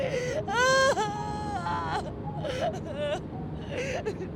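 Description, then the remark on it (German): A woman whimpers in high, wavering cries aboard a passenger plane, with a strong drawn-out whine near the start followed by shorter, broken whimpers over a low background murmur. “Es dauerte nicht lange, bis ihr Winseln die Aufmerksamkeit des Personals erregte.”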